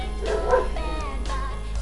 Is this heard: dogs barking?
yes